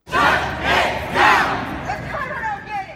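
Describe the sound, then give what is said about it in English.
A protest crowd in the streets of Charlotte calls for justice and an end to police brutality, chanting in loud, rhythmic bursts, three strong shouted phrases in quick succession, then the chant fades into scattered voices and murmuring from the gathered people. “The streets of Charlotte have come alive with a call for justice, a demand to end police brutality, and the need for urgent action.”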